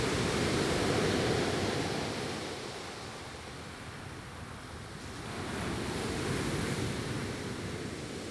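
Steady rush of sea waves washing around a boat sailing in Brazil's first area reserved for the study and recovery of marine environments, with a swell near the start and another near the end, plus some wind noise. No voices.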